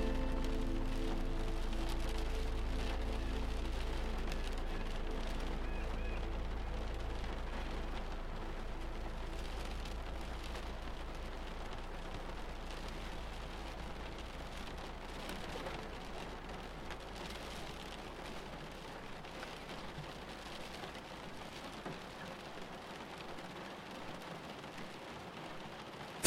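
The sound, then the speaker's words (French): Steady rain falls continuously for the whole stretch, a dense, even hiss of drops with a low rumbling undertone, consistent in loudness, with no voices. “Concentrez-vous sur le bruit de la pluie.”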